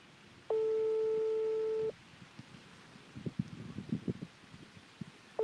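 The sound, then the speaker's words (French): A telephone call tone as a call is placed to a listener: a steady, fairly loud beep holds for over a second, then soft handling noises fill a pause before the same tone starts again at the end. “nous appelons”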